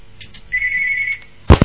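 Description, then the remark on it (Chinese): A telephone rings for an incoming listener call to a radio call-in program: a single steady, high electronic tone holds for about a second before a brief thud, as if the handset is picked up. No one speaks. “那么继续打进来，八好，台长来听一下。”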